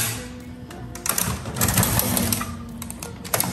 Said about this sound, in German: Na gut, jetzt druckt er wieder.